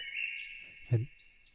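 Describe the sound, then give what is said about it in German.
Faint, continuous high-pitched birdsong played from a sound file, with a few thin chirps above it. It sounds slightly thin, and a brief low thump interrupts it about midway. “Wenn ich jetzt wirklich das Soundfile gefunden habe, hörst du jetzt Vogelzwitschern.”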